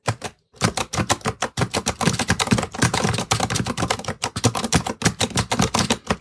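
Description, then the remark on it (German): Rapid clicking of keys being typed on a braille display, recorded by a phone placed directly behind it: a dense stream of sharp taps with a brief pause near the start and no voices, made while executing various functions on a webpage. “Und ich lege jetzt mal das Handy direkt hinter die Zeile. Einen Moment. Und jetzt hört ihr mal die Breitzeile”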